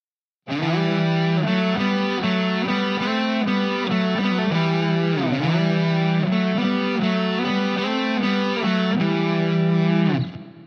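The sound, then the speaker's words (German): Two heavily distorted electric guitars play a melody together harmonized in thirds, the added line starting at the tenth fret of the fifth string, a steady run of sustained and quick notes, loud, with no talking, ending abruptly after about ten seconds. “So spielst du mehrstimmige Melodien wie …”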